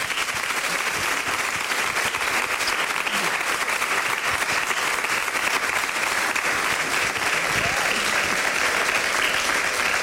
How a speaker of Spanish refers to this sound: Un aplauso para su memoria.